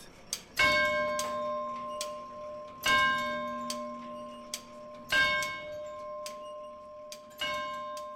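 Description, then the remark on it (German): In the Tower Clock Museum in Gräfenberg, Franconian Switzerland, a tower clock's bell rings four times with a ringing, harmonic tone that lingers between strikes, while the clock's steady mechanical ticking clicks along underneath. No voices. “Im Turmuhrenmuseum zu Gräfenberg in der fränkischen Schweiz kann man sogar hören, wie die Zeit vergeht.”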